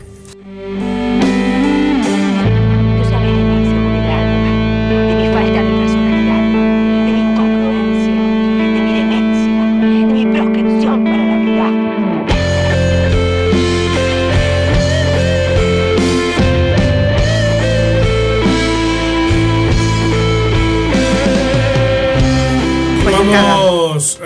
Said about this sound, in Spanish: Bueno, mandame la cortina de literaria y arrancamos